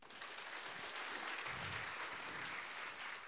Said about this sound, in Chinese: 给你们一个掌声。